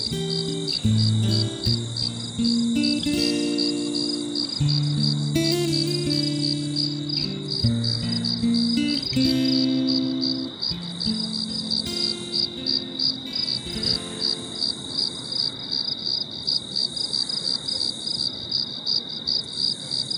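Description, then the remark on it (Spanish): Steady, high-pitched cricket chirping, worked into a song as ambient sound, pulses continuously through the whole recording, layered over a gentle melodic music bed that fades out midway, leaving the insects chirping with soft background texture. “Me gusta mucho que hayas incorporado a la canción este ruido ambiental, el canto de estos grillos, que uno lo escucha y son realmente una invitación a conectar con, con la naturaleza, a buscar una paz”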